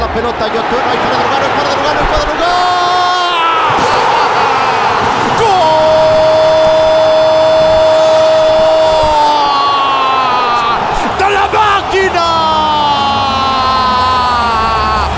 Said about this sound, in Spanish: Luego de 23 años, Cruz Azul es campeón del fútbol mexicano. La afición celebró con lágrimas la coronación de su equipo.